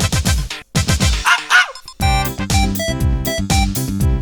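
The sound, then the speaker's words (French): A small poodle yaps in quick, loud bursts, then breaks into a run of high, sustained whining yelps that rise and fall in pitch. No one speaks. “Petit caniche, peluche pour vieux.”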